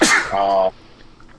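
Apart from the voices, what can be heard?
sneeze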